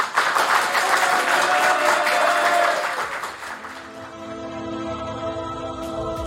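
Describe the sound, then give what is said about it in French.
The studio audience of the show Backseat breaks into loud, dense test applause for about three seconds, then it fades out and a steady tonal music bed carries on quietly beneath. “Le, public, on fait un test applaudissement”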